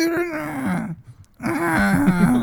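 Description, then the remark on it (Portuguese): A voice imitates a distressed dolphin from a Mega Drive video game, making two wavering, whining cries with sliding pitch, separated by a brief pause. The cries are fairly loud, with no other sounds. “Era, o que o … estava a fazer, falar, fazer, o jogo era basicamente isso.”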